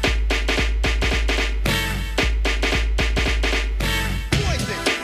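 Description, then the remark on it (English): A New Jack Swing track plays loud, with punchy, hard-hitting drum hits in a tight swung groove over heavy bass and bright synth stabs, with no voices. “That's New Jack Swing.”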